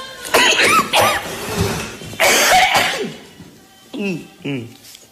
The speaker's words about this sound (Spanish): Lo que, lo que yo estoy padeciendo es la tos.